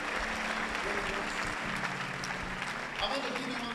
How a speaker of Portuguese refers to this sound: Uma salva de palmas para o Senhor.